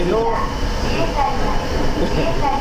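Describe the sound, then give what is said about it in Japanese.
A Sapporo Municipal Subway Namboku Line train at Makomanai Station rumbles steadily from inside the car, a loud continuous low roar with faint whining motor tones rising and falling, and muffled voices talking beneath it. “今日はこの音でもうお分かりの方もいらっしゃると思いますけれども、はい、我々は今札幌市営地下鉄南北線真駒内駅からお届けしておりますお送りしておりますこれ集中できないねこの音”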